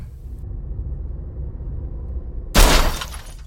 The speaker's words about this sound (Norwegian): Han treffer oss bak på bakhjulet, og vi begynner å snurre rundt på veien.